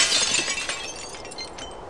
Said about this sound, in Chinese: 快乐王子的心噼啪一声，裂成了两半。